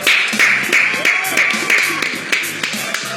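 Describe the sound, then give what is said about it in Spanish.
Audience applause: a dense, steady wash of many hands clapping, with sharper individual claps poking through and faint voices mixed in underneath, holding at an even loudness throughout. “Señoras y señores, yo quiero pedir un fuerte aplauso.”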